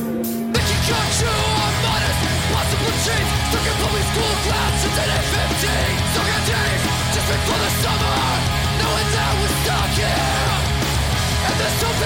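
A loud, dense recorded rock song kicks in after a brief pause, with heavy distorted guitars, pounding drums and shouted vocals filling the whole stretch without letting up.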